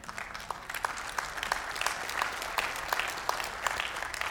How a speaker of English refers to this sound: Keep those claps coming.